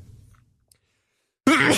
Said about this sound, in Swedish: Åh oh, gud, prosit.